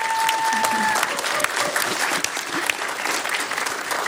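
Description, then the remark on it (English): A church audience applauds steadily for about four seconds, a dense, even patter of many hands clapping at a consistent loudness, with a brief high steady tone sounding faintly at the start. “Y'all, y'all give them a round of applause for being here today.”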